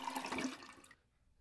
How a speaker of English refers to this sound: Um, I think we want to hear a toilet flush.